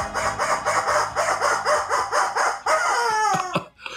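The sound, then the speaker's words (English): A rubber chicken squawks in a quick, rhythmic string of about nine honks, then lets out a longer, wavering squeal that trails off. No one speaks. “I'm just a rubber chicken.”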